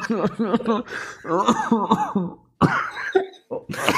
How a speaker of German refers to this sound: Ich habe diesen Corona-Husten schon seit drei Wochen, ey.